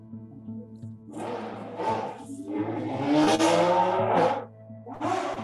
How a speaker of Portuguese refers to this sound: Espera aí que bem agora passou uma moto. Tá fazendo um discurso de ódio, irmão. Acelerando aqui.